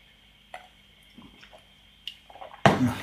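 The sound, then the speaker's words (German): During a drinking break, a few soft drips, clicks and small wet sounds, then German water suddenly pours loudly and steadily for the last half second, with no talking. “Trinkpause. Ich sag mal Ja zu deutschem Wasser.”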